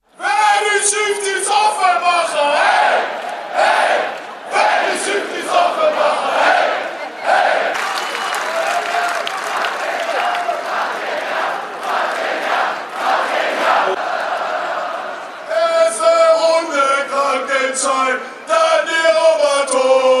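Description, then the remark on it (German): A large crowd chants loudly in unison at a promotion celebration while someone holds the microphone on stage, voices rising together in a sustained, rhythmic roar with only brief breaks, energetic like fans celebrating at a packed event. “bin auf eine Stelle gestoßen, in der du das Mikrofon auf der Bühne in der Aufstiegsfeier, in der Aufstiegsfeier in der Hand hast und da hören wir doch mal ganz kurz rein,”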